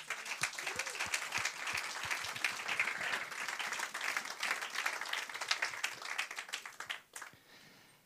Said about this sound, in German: Herzlichen Applaus für Manu.